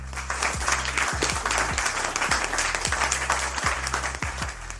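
An audience applauds loudly and steadily for several seconds, a dense wash of clapping over a low, droning hum, with no voices rising above it.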